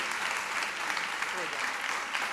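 Steady applause from a live audience for a band, a dense wash of many hands clapping at a constant moderate level for a couple of seconds, with no single claps standing out.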